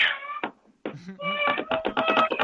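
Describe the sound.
A child's voice imitates a cat, producing a string of high, tonal meow-like cries, fairly loud, with a brief pause before a rapid run of repeated mews.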